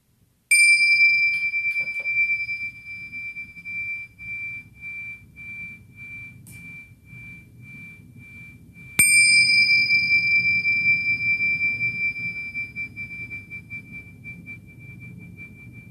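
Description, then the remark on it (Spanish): A bright bell is struck twice, about eight seconds apart, each strike ringing out in a long, pure, slowly fading tone over a soft low background rumble, signaling the close of a guided meditation. “y después del escuchar el sonido de la campana, lentamente vamos a volver, vamos a ir regresando y abriendo los ojos.”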